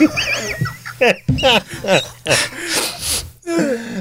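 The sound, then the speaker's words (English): A big, drawn-out, loud sniff comes after a run of squeaky, high vocal noises and short breathy bursts, with another breathy vocal sound right after it. “was just going to have a big sniff.”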